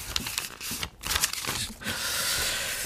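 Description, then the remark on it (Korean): Paper tearing and crinkling, a run of dry, rough rips with brief pauses, then a steadier crumpling rustle that continues to the end. “네, 이 종이 찢는 소리.”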